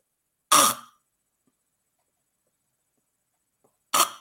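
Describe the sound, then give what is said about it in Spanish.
A voice imitates agonal gasping: two sharp, breathy gasps, each under half a second, separated by about three seconds of silence. Fairly loud, with no talking. “Pero si haciendo esto ves que no respira y te parece que no respira y no mueve la barriga y no ronca y no hace ruido, o lo hace de una manera muy rara, muy rara, el gasping, que son como bocanadas de pez”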